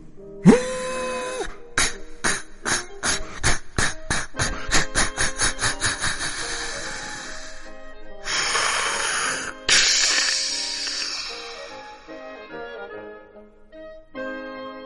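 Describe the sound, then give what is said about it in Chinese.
A steam train approaching from afar: a brief whistle tone, then loud rhythmic chugging that quickens steadily, followed by bursts of hissing steam and a fading rumble. No voices. “从远处驶来了一列火车”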